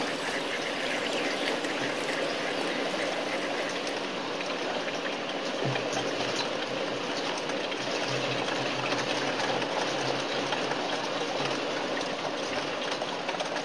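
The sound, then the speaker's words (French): Spring water runs steadily from a tap, a constant gush with an even hiss and gurgle that never pauses, and no voices over it. “Écoute, tout le temps là il y a un robinet Il y a un robinet.”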